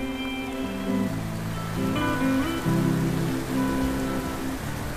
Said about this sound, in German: Du hörst den Bach plätschern.